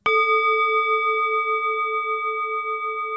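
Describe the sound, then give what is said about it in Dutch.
A single gong strike rings out with a sharp attack, then a steady, shimmering tone sustains loudly with slow wavering pulses as it decays gradually, with no voices present. “Want dan moet ik even eh, jouw gong laten gaan.”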